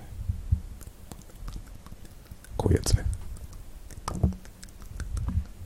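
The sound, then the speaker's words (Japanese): Wet ASMR mouth smacks and sharp tongue clicks pop irregularly throughout, made deliberately, with a short spoken phrase briefly breaking in partway through. “でも ASMR はこのノイズを聞かせるものなんですねだからなんだろうねこう喋ってるとねなんというかこう口の中のね、えー、湿度感、まあ、ピチャピチャいう感じとかね”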